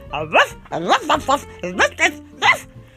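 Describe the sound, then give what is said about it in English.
A person imitates a dog barking with a quick string of about seven loud vocal barks in an uneven rhythm, with no other sounds. “and barking noisily,”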